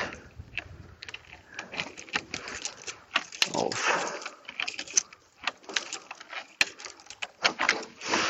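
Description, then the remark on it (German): Metallic scraping and clicking as a key turns in the lock of an apartment building door, followed by rattling and the clunk of the door being opened, with scattered handling noises throughout. “Und nun kann ich gleich einfach die Tür öffnen.”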